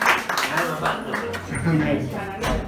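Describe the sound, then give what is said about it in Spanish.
A church audience applauds steadily for a few seconds to welcome a visiting sister, a dense, even patter of many hands mixed with voices talking and calling out over it. “Le damos un aplauso por ella al Señor, ¿no es cierto?”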